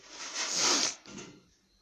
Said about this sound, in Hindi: सुनी बर्तन की आवाज फिर से